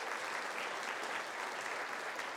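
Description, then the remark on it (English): An audience gives the Lord a hand clap of praise before leaving, many overlapping claps blending into a continuous crackling wash that holds at an even level without voices. “Let's give the Lord a hand clap of praise before we leave.”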